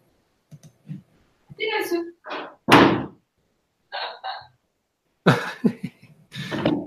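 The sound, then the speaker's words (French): Someone knocks on a hotel room door in Marrakech in a few short, uneven bursts of thuds, mixed with coughing and brief vocal noises between the knocks. “Parce que là, tu disais j'écoute, puis tout d'un coup, ça s'est mis à cogner.”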